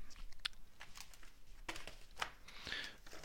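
Paper rustles and crinkles, with several quick sweeping swishes as pages are turned one after another, no voices present.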